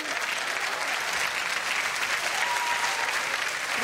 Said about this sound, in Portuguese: Obrigado pelas palmas. Ajuda muito na recuperação.